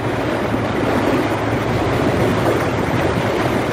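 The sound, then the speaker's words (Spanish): Loud, steady rushing of the turbulent Raura river as a soldier escort struggles to cross it, a dense continuous roar with no pauses and no voices, unbroken throughout. “Las aguas embravecidas parecen detener a los soldados que llevan una misión criminal en contra de Matovelle”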